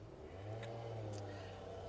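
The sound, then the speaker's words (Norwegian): A string trimmer engine drones steadily outside, a low buzzing hum with a slight swell in the middle, faint and unbroken, with no voices over it. “Jeg tror ikke det er motorsag. Jeg, jeg, jeg, er veldig god i sånne ting, så det er kantklipper.”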